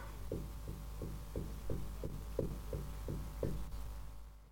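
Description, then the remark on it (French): A steady series of about ten dull, muffled knocks, evenly spaced and fairly quick, thudding as if from inside a wall over a low constant hum, with no voices. “L'esprit s'exécute et frappe successivement le nombre de coups correspondant au numéro des trois chevaux gagnants.”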